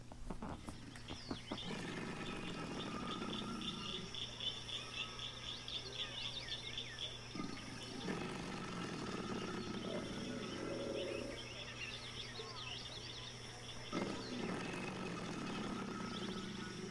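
Deep, rumbling alligator bellows come in several long bursts with pauses between, over a steady background of insect and bird chatter, with breathy hissing noise around them.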